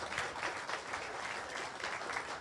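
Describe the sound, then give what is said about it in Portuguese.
An auditorium audience applauds the director secretary, who stands to receive it, steadily, a dense wash of many hands clapping at once with a sustained, even loudness and no voices standing out. “Fica de pé aí para receber uma salva de palmas desse auditório, por favor.”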